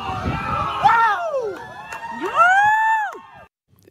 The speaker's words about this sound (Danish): Det var øh, det amerikanske militær, der skød ballonen ned, og det gjorde de til sådan, øh, hvad jeg vil kalde ret stor jubel fra øh, tilskuerne på øh, stranden.